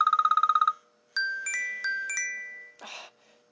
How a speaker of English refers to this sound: Be quiet, phone! Be quiet! Be quiet! Be quiet! Oh, mine's getting text messages.